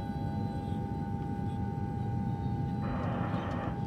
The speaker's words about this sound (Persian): تو هواپیما منتظر فرودی